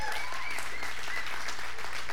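A crowd claps steadily in a dense, continuous wash of applause, with faint voices and a few whoops rising above the patter throughout.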